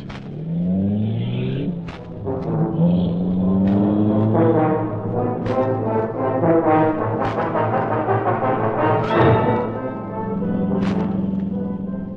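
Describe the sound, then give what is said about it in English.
The Black Beauty, the Green Hornet's sleek, super-powered car, roars to life and revs loudly, its pitch climbing as it speeds away in a continuous, throaty rumble with no voices. “The great car roared into life.”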